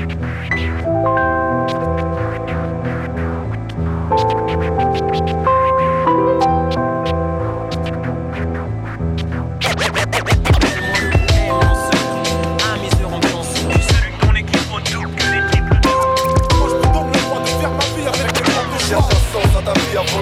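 A French rap track plays loudly, opening with a sampled melodic loop before a punchy drum beat kicks in about halfway through; no rapping is heard yet.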